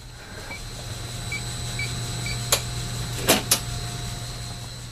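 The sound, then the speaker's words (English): A massive HVAC system in the attic of the Gardner Museum, keeping the floors below at the right temperature and humidity, hums steadily and low with a faint high whine on top. Soft intermittent beeps and three sharp clicks punctuate it, and no one speaks. “The attic space is dominated by a massive HVAC system. It's hum proof that it's working to keep treasures on the floors below at just the right temperature and humidity level.”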